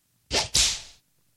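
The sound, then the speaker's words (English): A whip crack sound effect: a sharp snap quickly followed by a second, longer crack with a hissing tail that fades out, played alone with no voices. “But where's where's my whip?”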